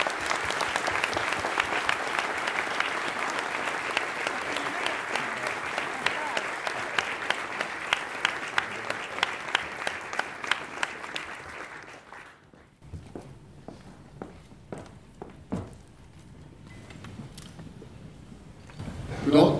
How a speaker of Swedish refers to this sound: Så vi ger en varm applåd till Hans Majestät Konungen Karl XVI Gustaf.